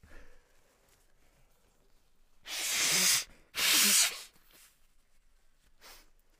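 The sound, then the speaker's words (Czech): Two strong bursts of nose blowing, each about a second long, harsh and hissy with a broad noisy rush, followed by a faint sniff. No one speaks. “Vteřinku pouze na smrkání.”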